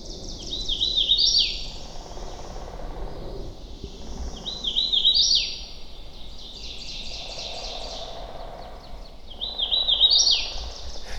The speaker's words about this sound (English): You've got the hooded warbler, which is this bright yellow bird with like a black mask across its face.